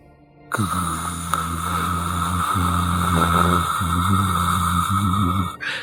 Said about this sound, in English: sort of this sound, this like low humming sound of maybe the pyramid's presence through space.